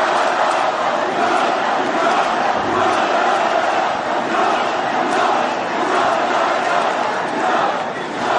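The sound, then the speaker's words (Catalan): A large crowd roars and cheers continuously in celebration of a castells (human tower) performance by les Joves, a dense, loud wall of shouting voices that holds steady without pause from start to finish. “aquesta Increïble. celebració de les joves.”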